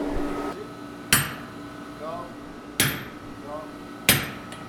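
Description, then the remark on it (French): Three sharp metallic strikes of one hammer against another, evenly spaced about a second and a half apart, each ringing briefly over a low steady hum. “Il utilise un marteau pour taper sur un autre marteau.”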